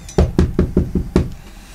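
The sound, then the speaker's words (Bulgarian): A series of six firm, evenly spaced knocks on a door, with a slightly harder final rap, then quiet. “Чува се от вратата.”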